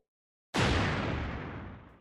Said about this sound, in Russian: Мордевольт навел миномет на поре, счастливо вздохнул и нажал на кнопку.